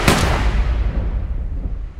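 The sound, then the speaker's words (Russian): A single loud gunshot cracks at the start as a man fires at Queen Victoria's carriage in an assassination attempt, followed by a long rumbling echo that slowly fades over the next two seconds, with no voices present. “Он подкараулил ее экипаж и выстрелил”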